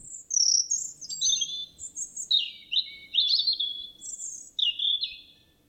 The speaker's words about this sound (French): Elle leva la tête et aperçut un petit oiseau à la gorge rouge qui virevoltait dans les airs autour d'elle. Il chantait, chantait encore sans s'arrêter.